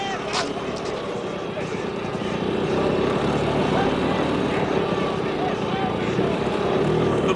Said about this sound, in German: Da! Da kommt ein Polizist mit einem Motorrad.